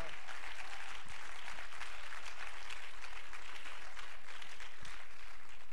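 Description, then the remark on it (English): An audience claps their hands in praise of the Lord in a steady, dense wash of applause that holds at an even level throughout, with a few sharper individual claps standing out. “Somebody ought to clap your hands and praise the Lord right now.”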